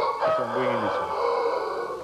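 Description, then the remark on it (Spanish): A trifino gamecock rooster belonging to Bixler crows, one short, strained call with a falling pitch that cuts off quickly, over a steady background hiss. “Este gallo acá es interesante, es un gallo eh, trifino.”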